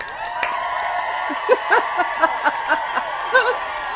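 A crowd cheering steadily as one dense roar, with louder whoops and shouts bursting out every half second or so over the top.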